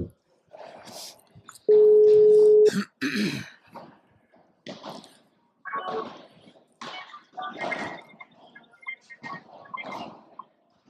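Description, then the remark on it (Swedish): A single loud, steady telephone ringing tone lasts about a second as a call is placed to Copenhagen, followed by a throat clear, brief rustling and people talking quietly. “Borde vi höra signal va?”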